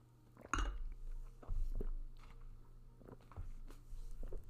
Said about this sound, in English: wait should i get more wine first let's take a sip of this